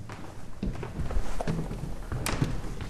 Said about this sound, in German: Von der Eingangshalle aus steige ich einen Stock höher. Es wird eng. Die Treppendielen knarren zwar gefährlich laut, trotz ihres Alters aber sind sie stabil und geben zum Glück nicht nach.